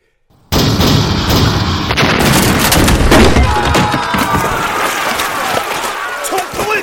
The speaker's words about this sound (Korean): 계속 발포해! 지자총통을 연이어 쏘니 그 소리가 천둥소리 같았으며 천막에 세운 다락과 가마는 모두 부서져 산산조각이 났다.